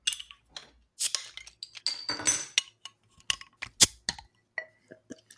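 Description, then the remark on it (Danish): Sharp glassy clinks and taps as a bottle of Belgian brune abbey beer is opened, then a short hissing, fizzy burst of pouring into a glass, followed by several more scattered clinks with no talking. “Øh, så øh, skal vi ikke åbne den og hælde den op?”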